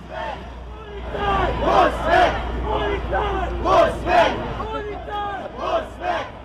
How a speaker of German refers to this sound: Hunderte Menschen stehen jetzt schreiend vor der Polizeiwache Nord, die von mehreren Beamten und Beamtinnen in dunkelblauer Dienstuniform geschützt wird. Zugleich schützen auch mehrere Einsatzwagen und weitere Polizisten die gesamte Demo.